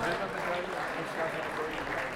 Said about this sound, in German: Euer Applaus, vielen Dank.